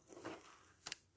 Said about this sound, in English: he's chewing up the piece of carpet I gave for him to lay on